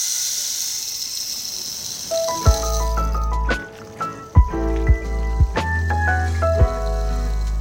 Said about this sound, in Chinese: 对，其实我们也有录雨声棒的声音，还是我们就把那个雨声棒的声音就剪辑成一个一个小时版，然后放在网络上，让大家可以 做瑜伽、冥想的时候可以做。